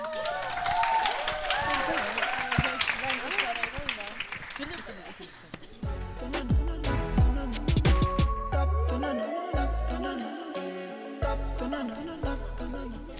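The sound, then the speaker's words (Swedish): An audience at the Street Guides five-year anniversary breaks into steady, dense applause mixed with cheering voices for the performers, then the clapping thins into scattered claps, chatter and a few low thumps. “Stor applåd och ge dem mycket, mycket, mycket kärlek.”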